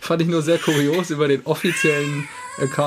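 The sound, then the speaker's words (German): A man talks steadily in the foreground while a child cries in the background, thin high-pitched wails rising and falling beneath his voice. “Oh, da man hört das Kindergeschrei im Hintergrund.”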